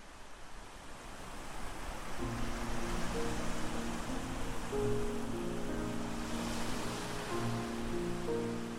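sea waves lapping

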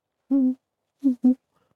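owl hooting

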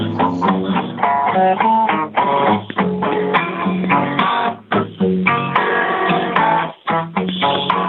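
song playing on radio

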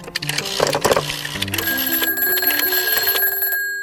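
telephone bell ringing

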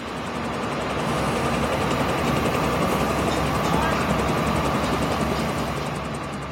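helicopter flying

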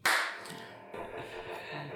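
hand clap

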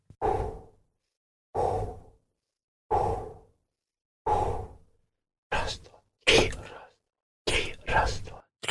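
rhythmic breathing

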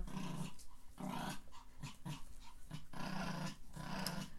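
dog growling

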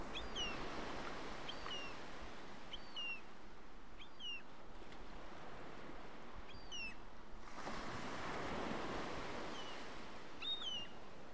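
sea waves

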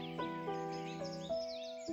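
birds chirping and trilling

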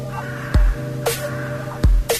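crows cawing

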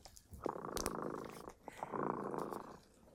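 cat purring

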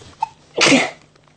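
sneeze

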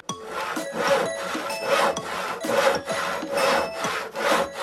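sawing wood

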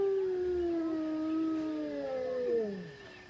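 wolf howling

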